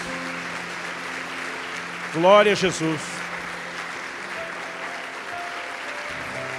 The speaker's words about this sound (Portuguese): E Eu quero que você já dê ao Senhor um forte aplauso pela decisão dessas pessoas.